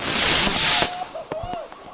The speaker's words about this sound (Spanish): fuegos artificiales.